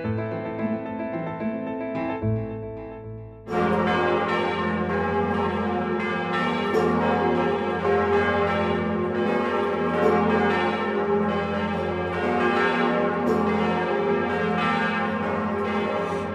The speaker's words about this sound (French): Et vous entendez ces cloches de Notre-Dame de Paris qui vont être silencieuses pendant X mois, X années, on ne sait pas. En tout cas, dans la tour sud se trouve la plus grosse cloche de Notre-Dame que l'on appelle le Bourdon,